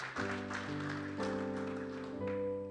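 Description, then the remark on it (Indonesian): An audience claps for the Lord Jesus steadily for a few seconds, a dense crackle of many hands, while sustained keyboard or organ chords hold underneath and shift a few times. “Tepuk tangan dulu bagi Tuhan Yesus.”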